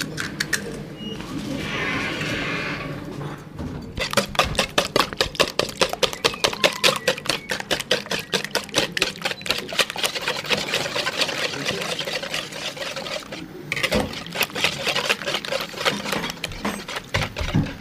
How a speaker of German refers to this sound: Was hören wir da gerade? Ja, wir hören jetzt gerade, wie das Ei fürs Rührei aufgeschlagen wird.